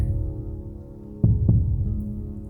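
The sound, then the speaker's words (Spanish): A deep, muffled heartbeat thumps twice in quick succession, a low lub-dub rising over a soft, steady hum in the background. No one speaks. “y vas escuchando tu respiración poco a poco, tu cuerpo, los latidos de tu corazón.”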